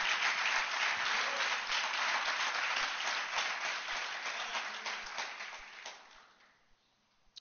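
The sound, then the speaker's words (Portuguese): A church audience applauds the Lord together in a dense, sustained wash of clapping that holds steady for several seconds, then gradually thins and fades out near the end. “Quantos podem dar uma salva de palmas ao Senhor?”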